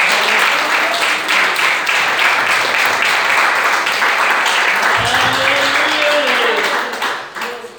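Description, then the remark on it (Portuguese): A crowd applauds steadily for several seconds to glorify the Lord, a dense, continuous wash of clapping with faint voices rising through it before it begins to fade at the end. “Essa palavra que o Senhor colocou no meu coração e as palmas que glorificam sua Senhor Amém.”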